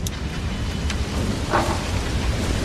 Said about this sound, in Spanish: Empezó a llover a medianoche, calculo que fue más o menos a esa hora.